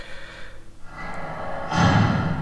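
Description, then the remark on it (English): A prison door sound effect from the Plogue Bidule software: a heavy prison door swings and slams shut near the end with a loud, booming metallic impact, preceded by a low rumbling hiss. No one speaks. “I'll play you the prison door sound effect, and it can be the closing of our talking about this track.”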